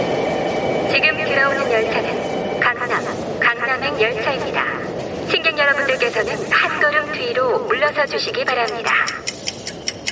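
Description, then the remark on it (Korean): A subway train pulls into a station at 7:23 in the morning, its steady rumble topped by shrill, wavering brake squeals that rise and fall over several seconds before a rapid clicking at the end. “7시 35분까지 출근하기 위해서 나는 저 지하철을 타야만 한다.”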